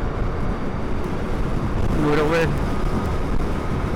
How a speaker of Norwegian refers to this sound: Nå er jeg nordover på E6. Lastebiler, biler, trafikk, fullt kjør.